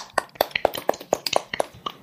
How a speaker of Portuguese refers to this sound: Palmas. Vou bater, eu mesmo.